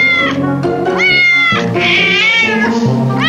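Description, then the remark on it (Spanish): Several cats meow loudly and insistently, overlapping one another in rising, drawn-out cries with no pause across the whole stretch, some almost yowling. “enséñame los gatos que van a, rasguñar, por favor.”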